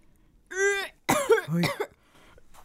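A person retches and gags in a few strained, throaty heaves, loud, with brief pauses between the bursts and no talking.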